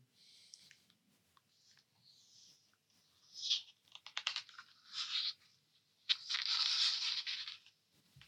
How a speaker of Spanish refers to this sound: ¿Escuchan el ruido de la página? Sí. Hay un tipo pasando, pasando hoja de un libro. Nada más que eso.